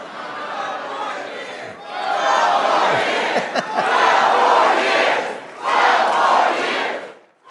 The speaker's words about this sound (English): He wants 12 more years. They start shouting now 12 more years.